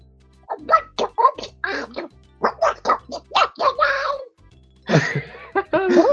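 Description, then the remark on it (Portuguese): A person voicing the duck character Pato does a squawky, nasal duck-like voice, quacking out garbled syllables in quick bursts with short pauses, fairly loud throughout. “Eu, eu sou a voz do Pato”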